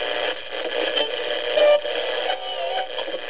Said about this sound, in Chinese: 在这个午后纯净时光，打开收音机，旋转调频。